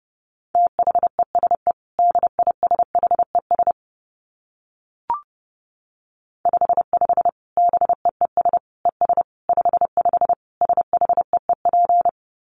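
Rapid Morse code at 30 words per minute: a steady mid-pitched tone keyed into quick dots and dashes, with a brief pause and a single click in the middle before the stream resumes.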